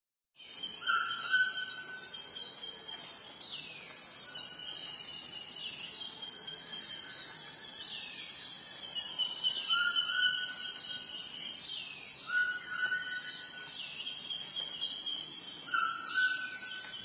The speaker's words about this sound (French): Le bruit des oiseaux, des insectes, celui du vent dans les arbres ou de l'eau qui s'écoule.